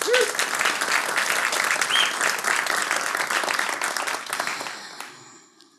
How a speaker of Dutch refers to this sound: Zonder al te veel weg te geven over het stuk dat zij vanavond voor ons heeft voorbereid, mag ik een warm applaus